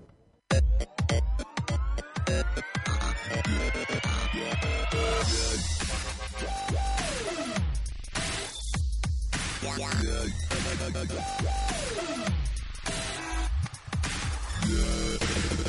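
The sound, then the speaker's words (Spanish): A loud, punchy instrumental radio show theme tune plays throughout, opening with hard rhythmic hits, then rising sweeping tones over a steady driving beat, with no voices. “Bueno, pues ya suena esta sintonía.”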